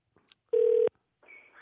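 A couple of faint clicks, then one loud, steady mid-pitched telephone tone lasting about a third of a second, followed by a quieter, hissy phone-line sound as the call connects. No one speaks.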